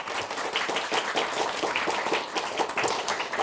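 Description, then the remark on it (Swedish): Steady audience applause, a dense crackle of many hands clapping at an even level throughout, with no voices over it, applauding the third-prize winner of a premiere round, Näfsby skola. “Vi har eh, anledning att applådera tredjepristagaren den här premiäromgången som är Näfsby skola.”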